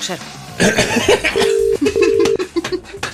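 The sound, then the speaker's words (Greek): A phone line rings with two steady tone bursts after a quick dialing sequence, heard clearly while people chuckle and murmur in the background, as a call is placed to an electrician. “Έλα ετοιμάσου ηλεκτρολόγο παίρνουμε ναι.”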